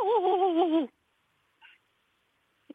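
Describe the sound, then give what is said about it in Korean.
A person imitates a large dog with one loud, wavering, howl-like whine lasting under a second, then near silence broken by a faint short noise and a soft knock. “대형견부터 한번 들어볼게요.”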